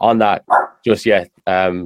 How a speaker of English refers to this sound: Um, sorry about the dog in the background.